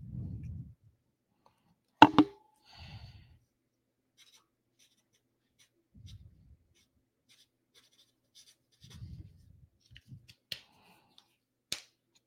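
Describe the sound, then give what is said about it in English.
A sharp pop as a permanent marker's cap comes off, followed by faint, intermittent squeaky strokes of the permanent marker writing on a surface, with soft handling thumps and a few clicks. “Oh, this is permanent marker. I'll write this down.”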